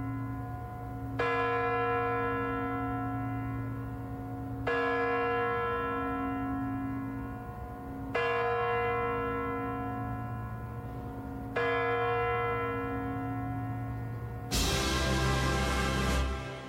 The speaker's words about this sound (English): Burning the paper, putting the ashes in their champagne glasses along with champagne, and drinking it as it, the final stroke of midnight tolls on the Kremlin clock tower.